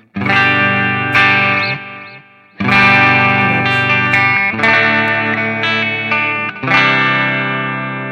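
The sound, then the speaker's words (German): A loud electric guitar modeled on a 1959 Gibson Les Paul Standard, set to its normal humbucker configuration (pickup positions 1, 3 and 5), plays thick, sustained chords with a few short pauses, its full tone slightly driven and warm, with no voices. “Und da haben wir also auch auf Position 1, 3 und 5 die normalen ähm, Hamburger-Konfigurationen, ja.”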